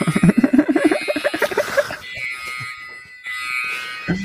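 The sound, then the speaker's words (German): A LEGO sound brick effect from LEGO Indiana Jones, sounding like the gates there, plays: a burst of bouncy, rising warbling tones, then a shrill, steady electronic alarm-like tone in two stretches separated by a brief pause. “Das ist hier übrigens ähm, aus, äh, ich denke mal an Lego in Indiana Jones, wenn ich diesen Soundstein abspiele, weil ich finde, das klingt genauso wie diese Tore.”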